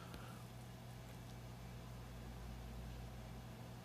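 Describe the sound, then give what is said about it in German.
A steady mechanical whir with a low hum from an old computer's fan as the computer shuts down, fairly quiet and unchanging throughout, with no voices. “boah, der macht ja wohl einen Krach, das geht ja gar nicht. Da hat man sich an diesen Mac hier gewöhnt.”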